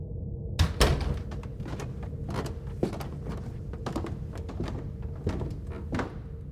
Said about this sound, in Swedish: Väl framme på platsen verkar ingenting vara konstigt fram till det att hon känner på dörrhandtaget in till lägenheten.